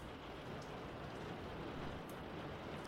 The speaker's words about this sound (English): Woo! That is rain. All right, well, let's see if we can do this with the rain in the background.